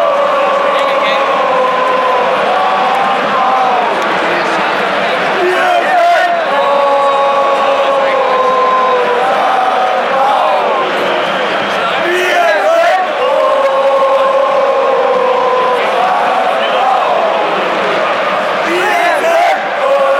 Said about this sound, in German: Neunundzwanzigtausend und zwei Zuschauer am Millantor.